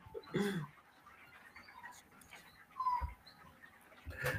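A dog whimpers and whines in short, high-pitched bursts, fairly close, with a brief yelp near the start and more plaintive cries later.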